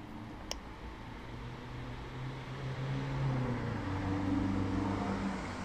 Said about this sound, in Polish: Ale na pewno słychać ruch uliczny. To też jest dobre do posłuchania.